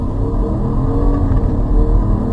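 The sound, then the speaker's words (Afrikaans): The turbocharged 4.7-litre V8 engine of an ML500 SUV (300 kW, 600 Nm) runs loud, a deep throaty rumble that holds steady with slight swells in revs, with no voices over it. “Wel, dit is 'n V8, 'n 4.7. Nie sleg nie sou jy sê, maar die masjien is boonop turbo aangejaag.”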